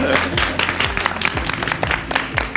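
An audience at the first Bjørvika edition of the live show Lederliv live applauds steadily, many hands clapping in a dense, continuous patter with scattered sharper claps and a low thumping beat underneath.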